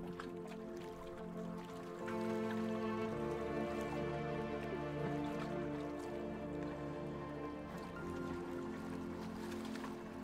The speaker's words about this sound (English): Slowing your boat, you hear the calm soft plops of gentle waves as you approach the shore.